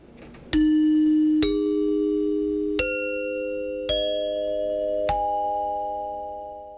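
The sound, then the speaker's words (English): Five chime notes struck one after another at an unhurried, slightly uneven pace, each ringing clearly and blending into a lingering, gradually fading tone. Fairly loud, with no voices. “Dinner chimes were often used to summon guests to the table, and it was also used to indicate the start and stop of intermission.”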